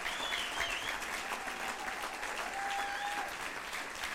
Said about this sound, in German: Hey, wollen wir nochmal einen kleinen Applaus geben? Hey. Danke.